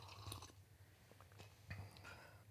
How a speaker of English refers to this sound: Probably gonna have to edit out the slurp. Nah, makes it more authentic. He's a real Englishman, ladies and gentlemen. He Yeah. loves his tea.